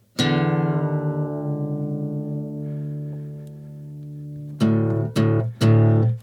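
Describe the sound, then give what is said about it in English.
A single low guitar string is plucked and rings out for several seconds as it is tuned down to drop D, then it is plucked three more times in quick succession, clear with no talking. “So the song's in drop D, so I have to. If you don't know if you don't play guitar, you don't know what drop D is.”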